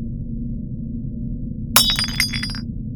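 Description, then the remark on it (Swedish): A ceramic coffee mug falls in a kitchen, hits a hard floor and shatters with one sharp crash, followed by a brief spray of tinkling shards over a steady low hum, then quiet. “Jag hörde hur en kaffemugg från köket slog i golvet”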